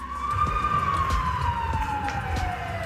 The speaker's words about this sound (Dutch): wordt mijn dag eigenlijk heel vaak onderbroken door het horen van sirenes. Dat is een, een standaard geluid ondertussen wel geworden.